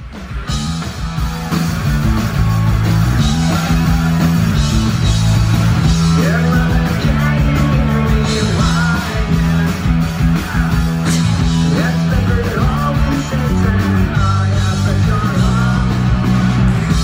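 Loud, dense punk rock played live at a concert in a small bar, with distorted guitars and a driving bass line pounding steadily throughout, the raw mix filling the crowded room.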